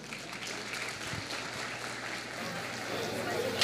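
A church audience in Tijuca applauds to welcome the pastor's wife to the front, with a steady, dense wash of many hands clapping at an even, moderate loudness for several seconds, a faint low hum running underneath and no clear talking.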